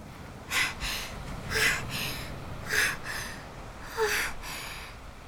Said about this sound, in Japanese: 全力で走った私は息が上がっていた